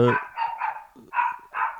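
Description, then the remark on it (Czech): A dog in heat barks four times in a short, uneven series, each yelp sharp and nasal, with brief gaps between barks and no talking. “A pejsek nám štěká?”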